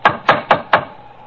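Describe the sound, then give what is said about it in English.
Four sharp, evenly spaced raps of a door knocker striking a wooden door, fairly loud, each with a brief resonant ring, then quiet. “Well, here's the door, but I can't see any sign of a bell. They seem a trifle short of modern conveniences. Let's try the knocker.”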